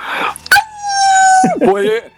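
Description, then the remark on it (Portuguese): A dog named Ozzy lets out one long, steady howl, then breaks into a short, wavering whimper. It sounds fairly loud over a faint low hum. “para de me machucar o cachorro aí, rapaz.”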